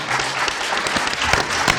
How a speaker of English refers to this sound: So, yes, give them a round of applause.